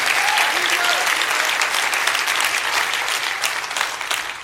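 An audience breaks into sustained applause for Jesus in church, a dense, steady wash of many hands clapping at once, loud throughout and tapering only slightly toward the end, with a few faint voices mixed in.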